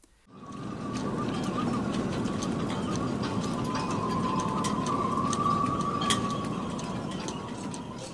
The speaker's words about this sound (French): C'est un bruit qui fait plaisir. C'est un petit tic tic tic tic C'est un petit claquement, un peu comme un élastique sur, sur une partie un peu résonante. Le bruit des haubans drisses qui claque sur le, mât du bateau.